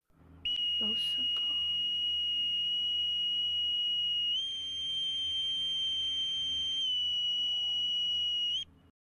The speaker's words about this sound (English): have any of you guys ever heard a bosun's mate's pipe?